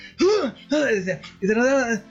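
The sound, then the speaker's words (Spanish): A voice imitates the choking, gasping cough of a person answering a phone call: three strained, raspy vocal bursts in quick succession, fairly loud. “Y resulta que de repente llega el lunes y me contesta con súper ahogado, así como que me hablaba y se ahogaba, con una tos asquerosa, así como.”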